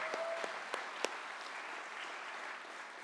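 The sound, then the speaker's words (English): A crowd claps steadily in thanks to a guest preacher, a dense wash of overlapping hand claps with a few sharper claps standing out early on, sustained without any talking. “Would you all let Tim express your gratitude to Tim?”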